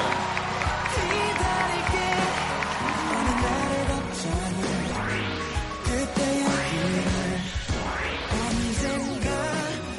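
An audience applauds steadily for about ten seconds to welcome guest Yoon Sang, a dense wash of clapping mixed with cheers and a few rising whoops, staying loud and even throughout.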